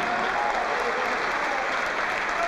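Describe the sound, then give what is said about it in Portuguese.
A crowd applauds steadily in the name of the Lord as people who raised their hands come forward: a dense, unbroken wash of many hands clapping at an even, fairly loud level throughout, with no voices standing out. “Vamos aplaudir ao nome do Senhor por cada vida que está chegando.”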